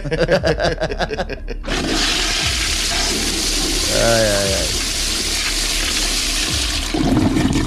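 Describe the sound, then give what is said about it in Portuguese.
A toilet flushes with a loud, sustained rush of swirling water lasting several seconds, following a brief burst of voices at the start. “Descarga esse negócio aí.”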